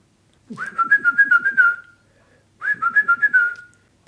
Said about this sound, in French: Ou je les siffle aussi.